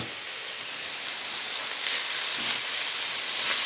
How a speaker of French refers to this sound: Maintenant, je peux déglacer au vin blanc. Hop, j'ajoute mon petit verre.